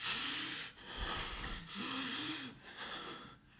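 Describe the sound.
A person imitates rapid, gasping breaths like those from a cold-water shock, as under a cold shower: about four harsh, hissy inhale-exhale bursts in quick succession, some with a strained voiced edge, fairly loud and without talk.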